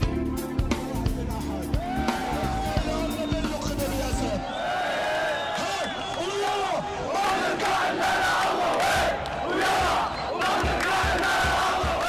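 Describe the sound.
A large crowd of thousands of people gathered in Al-Assi Square chants and shouts continuously, a dense roar of many voices with rhythmic rising cries and loud bursts throughout, staying steady and intense for the whole stretch.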